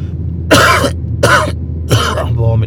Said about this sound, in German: meinem Husten. Das ist aber echt ätzend im Moment.